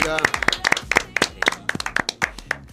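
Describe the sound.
A short burst of applause in the EIP Radio studio for a professional padel player from San Fernando, Argentina: a small group clapping in quick, irregular, crisp bursts, fairly loud and steady throughout, with voices faintly audible underneath.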